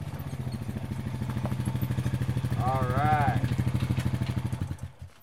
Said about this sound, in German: Becky, die blaue Schiebermütze tief ins wettergegerbte Gesicht gezogen, knattert auf ihrem Quad auf den staubigen Hof und hält vor dem Pferdestall.